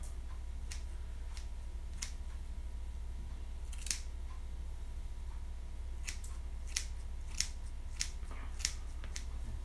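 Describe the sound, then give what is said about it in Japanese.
Scissors snip through hair in an irregular series of crisp, bright clicks, a few louder than the rest, over a low steady hum with no one talking. “そしてこのポッドキャストを録音しながら切るっていうのでね凄まじい時短を確立しておりますが”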